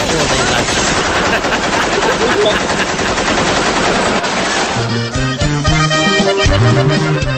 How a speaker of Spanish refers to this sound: ¿500 balazos? Armas automáticas. Pecheras portaban. Y de cuerno las ráfagas.